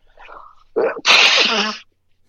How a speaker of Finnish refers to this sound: ja nyt mä joudun varmaan niistämään. Tämä varmaan kuulostaa hyvältä